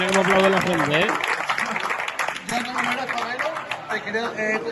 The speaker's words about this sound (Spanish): mira, mira, mira, mira, cómo aplaude la gente, ¿eh? Increíble.